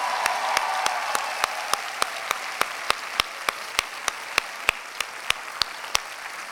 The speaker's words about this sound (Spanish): Y ahora vamos a darle un aplauso a nuestro buen Dios porque siempre es bueno con frío y con calor.